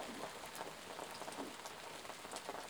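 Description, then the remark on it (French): Steady rain falls in a dense, even hiss, with scattered drops tapping a surface. It's fairly quiet and continuous, with no voices or other sounds. “Mais peut-être que vous entendez d'autres bruits chez vous, peut-être que la pluie également dans ce podcast n'est pas le seul bruit que vous pouvez entendre.”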